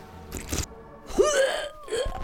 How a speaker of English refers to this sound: One sip and she starts retching.